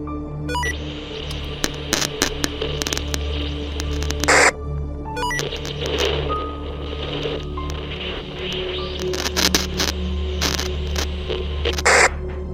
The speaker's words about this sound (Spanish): Mi sorpresa fue que al tomarlo, este no transmitía ni recibía nada solo se escuchaba estática.